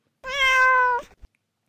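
A single clear, drawn-out cat meow, fairly loud, holding a steady pitch for under a second before ending with a faint soft tap. No voices.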